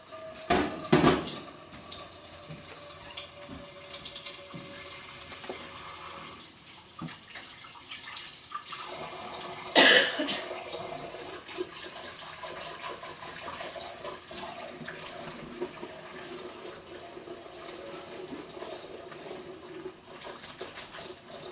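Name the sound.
tap water running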